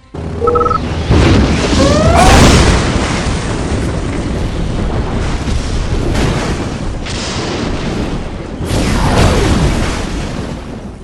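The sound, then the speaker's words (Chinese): Video game lightning storm strikes and explosions: heavy, continuous booming and rumbling, with sharp bursts at the start, around two seconds, and twice near the end. Loud and dense throughout, with no voices. “Warning: Lightning storm created.”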